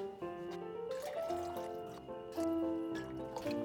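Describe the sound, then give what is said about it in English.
A drink being poured into a glass, with a steady gurgling stream whose ringing tone climbs in pitch as the glass fills, a brief pause partway through, no talking. “Step 1 Make yourself a drink.”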